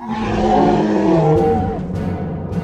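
A loud, savage roar from a large male creature, deep and rumbling with harsh growling overtones, sustained for about two seconds before trailing off into rough breathy noise.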